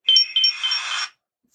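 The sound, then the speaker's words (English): A phone's notification chime for an incoming message: two quick, bright, high-pitched tones followed by a shimmering ringing tail lasting about a second, clear and on its own with no talking. “I think Kirito just messaged me.”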